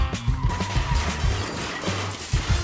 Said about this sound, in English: Ah, where's my scream? I don't even know where my scream is. Oh, fuck it. Let's just go with a car crash.